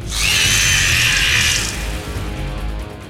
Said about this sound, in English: The arrow slammed into the side of the bird's torso, striking true. Blood seeped from the wound. The bird let out a terrible scream.